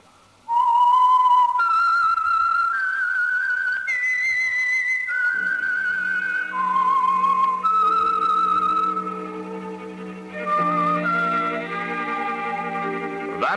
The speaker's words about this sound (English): whistle is your signal for the Signal Oil program, The Whistler.